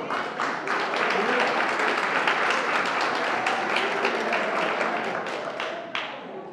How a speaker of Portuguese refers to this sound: Aleluia. Aplauda o Senhor.